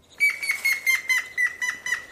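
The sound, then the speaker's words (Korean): A woodpecker sound effect: about nine sharp, chirpy bursts repeat in a quick, even rhythm over a steady high whistling tone. It is fairly loud, with no talking. “오, 딱따구리.”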